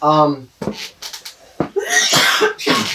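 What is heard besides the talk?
dry coughing fit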